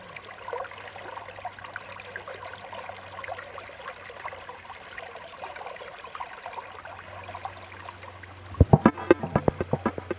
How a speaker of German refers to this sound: Ich würde sagen, wir hören noch ein bisschen Bach plätschern